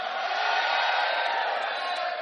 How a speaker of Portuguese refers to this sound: Você pode dar um berro, um grito de vitória? Você pode.